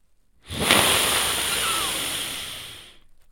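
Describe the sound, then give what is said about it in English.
One long, drawn-out sniff of a copy of the book A Court of Frost and Starlight: a steady breathy hiss that rises quickly, holds for over two seconds, then fades, with no talking. “I'm gonna give that a sniff.”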